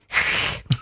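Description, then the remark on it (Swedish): A person imitates an angry cat's hiss: a long, breathy hiss held for about half a second, then a short, sharp spitting puff. It is fairly loud, with no talking. “Oj, en sur katt.”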